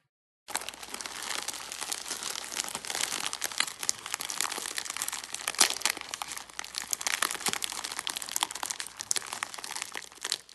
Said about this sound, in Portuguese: Se você está ciente e deseja continuar, permaneça na linha após o som do pacotinho de jujubas fortificantes para cabelo sendo aberto.